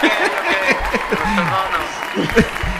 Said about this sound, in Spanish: Una ovación de la muchedumbre, gracias.